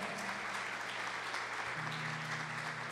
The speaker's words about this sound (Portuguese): Dê uma salva de palmas aí, porque Ele é bom.